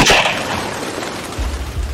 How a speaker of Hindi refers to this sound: उसका इतना बोलना हुआ ही था कि तभी गोली चलने की एक तेज आवाज हुई